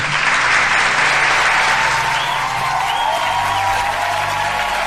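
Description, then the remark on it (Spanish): Sustained, loud applause from a crowd, a dense steady wash of many hands clapping at once for about five seconds, with a faint murmur of voices underneath. “Y ese aplauso es para ti.”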